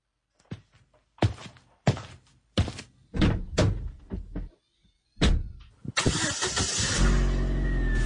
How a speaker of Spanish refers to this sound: Bueno, a ver pues acomodo la silla, arreglo los espejos, carro prendido, quito el freno de mano, bueno, todo listo.